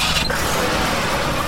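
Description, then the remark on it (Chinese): Cars rush by in a dense, steady roar, with a brief high tire screech near the start, as parents hurriedly drive to a bridge. No voices. “爸爸妈妈们急忙开着汽车赶到了桥上。”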